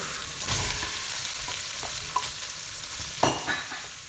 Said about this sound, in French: il va falloir commencer à saisir la viande. Donc là, on va mettre euh, de l'huile d'olive dans une grosse poêle et on va faire revenir les morceaux d'agneau.